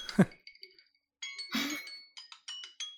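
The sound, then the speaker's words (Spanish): A kitchen timer goes off: a sharp clink, then bright, high metallic ringing that breaks into a quick run of short repeated pulses, fairly loud with no talking. “Es el temporizador.”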